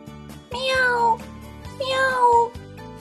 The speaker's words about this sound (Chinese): 喵！小趣把火腿肠放在地上。你好，小猫咪